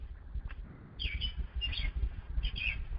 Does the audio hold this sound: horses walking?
no